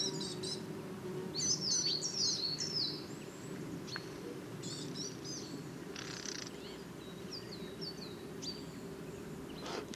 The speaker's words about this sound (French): Ça y est, les premiers cris de pinson du Nord de l'année.